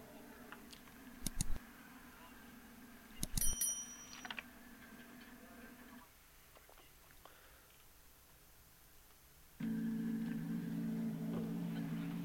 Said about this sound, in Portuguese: Tem só a moto chegando aí, ó.